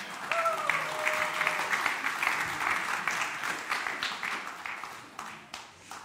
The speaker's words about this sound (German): Ihr dürft unsere Boyband hier vorne mal einen riesen Applaus geben.